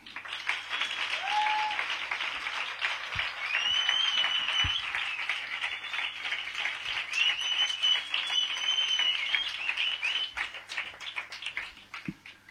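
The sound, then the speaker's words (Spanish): Sustained audience applause, dense and steady for about twelve seconds, with a few faint whistles rising above the clapping and no speech over it. It is the evening's first applause, welcoming the journalist Marta Nebot as the first guest. “Y para ello lo que vamos a hacer es eh, proclamar el primer aplauso de la velada para recibir como se merece a nuestra primera invitada, a la gran periodista Marta Nebot.”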